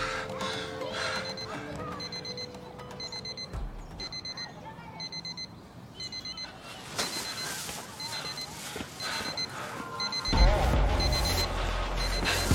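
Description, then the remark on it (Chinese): An alarm clock in a trash can beside a public square beeps insistently, bursts of rapid high-pitched bleeps repeating at a steady rhythm over a low background hum, with a deeper rumble joining near the end. “准时到达广场，根本就没有劫匪的影子，只听到旁边垃圾桶里有个闹铃滴滴作响。”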